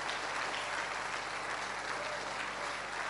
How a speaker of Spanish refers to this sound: Vamos a darle un fuerte aplauso a nuestro Dios Todopoderoso.